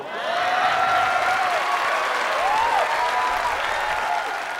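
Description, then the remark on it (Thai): A crowd breaks into steady, dense applause that holds at an even loudness for several seconds, with a few voices whooping faintly over the clapping. “ไอสัตว์ตับใหญ่ขนาดนี้มึงต้องตบมือแล้ว”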